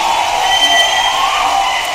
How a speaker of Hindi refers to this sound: क्या बात है एक बार जोरदार तालियां उठा दे हवा में